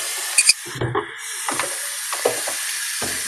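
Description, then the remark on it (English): A tablespoon is washed with soap under running water, a steady hiss broken by several sharp clinks and scrapes of metal against the sink, with no talking. “So I'm just going to wash it off with some soap and water so we can reuse it for the flour.”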